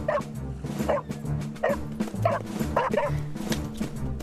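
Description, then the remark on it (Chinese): A search dog named Radar barks in a quick series of short, excited yips and bow-wows, mixed with whimpering, over a steady low background rumble, while sniffing out a person trapped under rocks in the desert. “去吧，雷达，把詹姆斯找出来。雷达灵敏的鼻子能够找出詹姆斯的大概位置，这样我们就可以把詹姆斯从这些石头中救出来了。”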